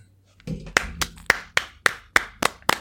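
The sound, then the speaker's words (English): Roughly eight sharp hand claps in a steady, unhurried rhythm, each one crisp and bright, with a brief low rumble just before they begin and no voices. “Should we clap?”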